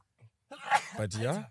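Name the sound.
sneeze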